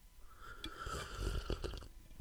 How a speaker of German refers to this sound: Also heiße Zitrone, heißer Ingwer und noch, was, Blaubeeren oder was war's? Waldbeeren. Waldbeeren. Eine Waldbeerenmischung. Das ist also gut. da Jetzt bist schlürfe ich auch nochmal, also haltet ja. euch die Ohren zu.